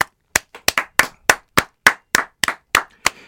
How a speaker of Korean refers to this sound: 아, 박수.